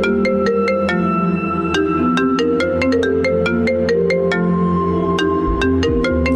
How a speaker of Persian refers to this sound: موبایلم توی جیبم ما داشت میلرزید هی میلرزید هی ویبره میلرزید تا اینکه زنگ زد